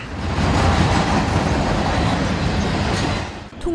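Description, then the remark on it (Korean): A train rumbles steadily past on the rails in the industrial district of Los Angeles, by the Golden Road brewing company, a loud, continuous roar of wheels and cars with faint clatter, holding steady before easing off near the end. “황금 열차가 지나가는 LA 공업지구에 자리한 황금길 양조회사.”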